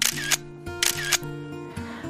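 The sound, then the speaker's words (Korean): Crisp mechanical shutter clicks from an expensive SLR camera, fired in quick pairs with short pauses between, three bursts over a faint low hum. “고급지고 활기찬 셔터 소리를 들을 때마다 그래, 이게 바로 돈 쓰는 맛이지.”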